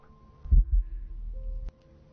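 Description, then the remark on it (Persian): A deep, muffled heartbeat thumps twice in a quick lub-dub pair, followed by a low sustained throbbing rumble that cuts off abruptly. No voices are heard. “بعد صدای ضربان قلبم رو میشنیدم انگار توی خلق و صدای فقط قلب”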